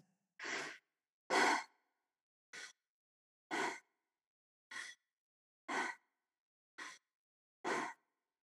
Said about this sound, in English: And you're yeah. breathing in and out through your mouth.